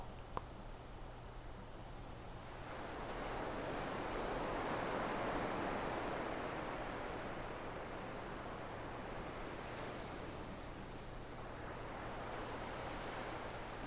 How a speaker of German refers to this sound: kannst immer wieder zurückkommen zum Meeresrauschen, zu deinem entspannten Körper, zu dem Geruch des Meeres, zu der sanften Wärme um dich herum und zu der entspannten Atmung.